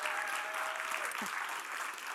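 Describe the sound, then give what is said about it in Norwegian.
Steady audience applause for the three organisers of the Christmas fair committee fills the whole stretch, a dense wash of many hands clapping at an even loudness without pause. “Det er verdt en stor applaus.”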